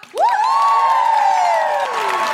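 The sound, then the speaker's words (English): A loud, sustained audience cheer and applause for Sophie Duker at the Sheffield Octagon, dominated by a high whooping voice that swoops up sharply, then holds and slowly slides downward for about two seconds, with no speech over it. “Can I also have a huge, huge round of applause for Sophie Duker?”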